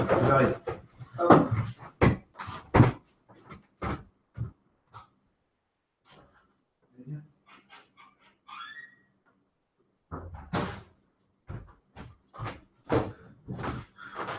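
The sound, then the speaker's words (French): A door is unlatched and opened to let cats in, with a run of sharp clicks and knocks, a soft creak in a quieter middle stretch, then more handling clatter and faint voices. “Ok Il y a le chat qui essaie toujours de rentrer. je vais ouvrir vos chats.”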